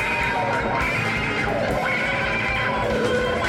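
A loud, growling wah-wah electric guitar snarls continuously, its tone sweeping up and down in whinnying, vocal-like swells over a dense, distorted wall of sound, with no voices.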